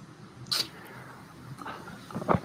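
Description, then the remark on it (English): Sparse, synthesized water-droplet tones from a sonified exoplanet spectrum, louder where the planet's atmosphere absorbs more light at water's wavelength, plink at irregular intervals: one bright drop early, then a cluster of softer, lower drips near the end over a faint, hushed background. “uh, light that the planet's atmosphere has absor- absorbed, um, the louder the sound. And when we are detecting at that particular wavelength, the planet is absorbing that light. And that means there's water.”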